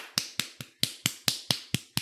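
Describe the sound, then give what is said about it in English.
A quick, steady run of eight sharp smacking hits as someone demonstrates punching themselves in the face at full speed, crisp with no talking. “Punching themselves in their face at full speed till their noses break.”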